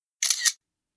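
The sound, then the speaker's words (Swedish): A single camera shutter click as security guards take a photo, crisp, with a quick mechanical double snap lasting about a third of a second, followed by silence. “Jaha, ja, men då är det lugnt, skrattar väktarna och klappar mig lite lätt på axeln och frågar om de får ta en bild med mig. Jag vet inte vad jag ska svara och ler obekvämt in i kameran”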